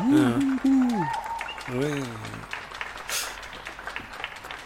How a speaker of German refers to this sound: Ja, hören wir mal hin. Mal, da, da so jubeln sogar welche.